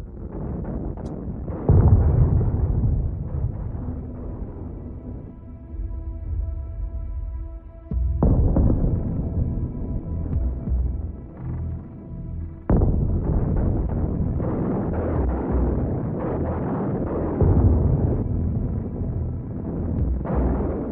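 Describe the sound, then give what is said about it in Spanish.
Deep, heavy booms roll in one after another as artillery shells fall and explode around the Reich Chancellery, several strong blasts with rumbling low-end tails, with a faint sustained tone hanging between impacts. “Pero el ambiente de fiesta pronto se ve interrumpido por el sonido de los proyectiles de artillería que caen alrededor de la Cancillería del Reich.”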